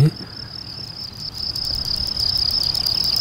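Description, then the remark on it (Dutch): A male cricket's courtship song, luring a female to mate: a steady high-pitched chirping tone with rapid pulsed rattling bursts layered over it, continuous, growing slightly louder, with no talking. “Ah ja, dus je hebt niet alleen het, het piep, piep, piep, maar ook een soort eh, ja, gezoem. Ja, ja, een eh, geratel.”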